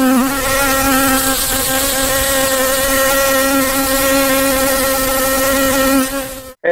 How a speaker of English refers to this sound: can you hear the buzz?